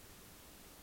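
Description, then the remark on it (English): A remote speaker's audio drops out, leaving nothing but a faint, steady hiss of static with no voice for just under a second. “That was you cutting out.”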